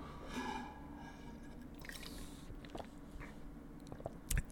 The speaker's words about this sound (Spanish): Y sí, sabe, sigue sabiendo jabón con cloro. Sigo, y sigo tomándome el agua.